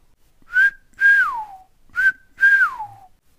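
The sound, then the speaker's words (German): A golden oriole's fluty whistled call, given twice: each phrase is a short clear note followed by a longer note that slides downward. The calls are loud and clear, with no voices. “Ogun erwachte durch den kräftigen Ruf des Pirol”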